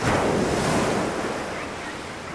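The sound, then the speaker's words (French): Ocean waves wash onto a beach in a steady, broad roar of surf, fairly loud, with some wind noise buffeting the microphone and no voices. “Pour célébrer ça, et parce que maman sait que j'adore le bruit des vagues, elle m'emmène à la plage.”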